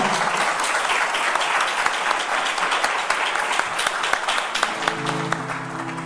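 Loud, sustained applause from a crowd, a dense steady wash of many hands clapping that continues for several seconds with no speech over it.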